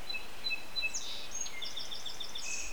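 Birds sitting in tree branches a few metres overhead chirp and twitter in quick, high-pitched bursts, several calls overlapping in a busy pattern over a soft, steady background hiss. No one speaks.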